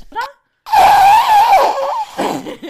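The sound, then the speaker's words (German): A voice attempts a mouth fart imitation but it comes out as a loud, wavering, voiced buzz lasting over a second, followed by a shorter squeaky trailing sound; a brief vocal chirp precedes it. “Das sollte ein Pupsgeräusch werden, das hat nicht funktioniert.”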